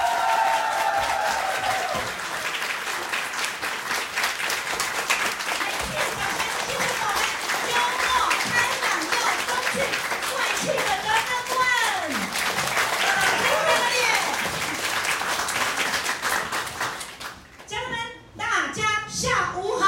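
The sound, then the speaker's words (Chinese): An audience applauds loudly and steadily for about seventeen seconds to welcome a spiritual-practice consultant, a dense rattle of many hands with a few voices calling out, before the clapping fades and a voice begins speaking. “用你最热情的掌声，欢迎我们的灵修顾问。”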